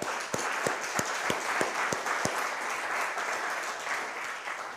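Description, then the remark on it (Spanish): An audience applauds God at the preacher's request during a Spanish-language sermon, a steady, dense wash of many hands clapping, with a few sharper, louder claps standing out in a regular rhythm during the first half before the applause carries on evenly. “Dele un aplauso a Dios, por favor.”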